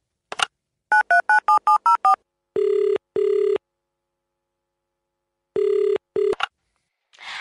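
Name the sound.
telephone call ringing tone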